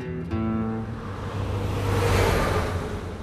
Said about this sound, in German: Draußen rauschen unablässig Autos und Lkw vorbei, drinnen ist es ganz still. Eine dünnwandige Glastür nur schottet den Altarraum vom Lärm der wenige Meter entfernten Autobahn ab und doch ist es wie eine andere Welt.